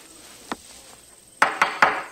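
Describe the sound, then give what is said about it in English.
Knocking on wood: one sharp rap, a short pause, then three quicker, louder knocks in a row, with no voices. “Knocking.”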